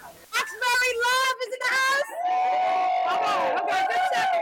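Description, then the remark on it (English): A crowd cheers loudly at a ribbon-cutting celebration in Roxbury, hyped up by Senator Liz Miranda, with high, sustained whoops and shouts rising over a constant roar of voices for several seconds without letting up. “Senator Liz Miranda got the crowd hyped up with her Roxbury pride.”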